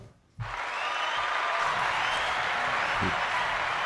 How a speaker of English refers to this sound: A lot of, lot of, lot of hand claps on this one